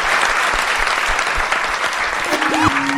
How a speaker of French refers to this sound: Merci beaucoup, on peut... Merci à vous. Euh, vous applaudir.